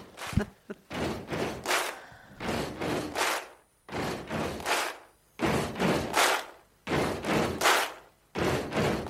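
A rock song's stomping beat plays: heavy, booming stomps and sharp claps repeat in a steady stomp-stomp-clap rhythm throughout, loud and with no voices.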